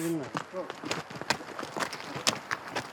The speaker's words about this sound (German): Nun werden die Esel gesattelt. Jaoud und sein Team brechen zum nächsten Haus auf.